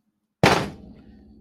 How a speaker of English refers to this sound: What was that? I'm using the book to crush walnuts.